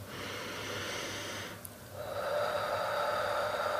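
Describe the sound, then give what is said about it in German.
A long, audible breath drawn deeply into the belly, with a brief pause midway before the airy inhale resumes and swells louder. No talking. “und erst recht, wenn es hörbar ist, aber du kannst es auch einfach innerlich machen, wenn du tief in den Bauch einatmest oder so tief du eben kannst und selbst wenn du den Atem einfach nur ein bisschen verlangsamst”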